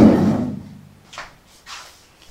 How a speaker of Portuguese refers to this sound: A porta abriu. Do nada.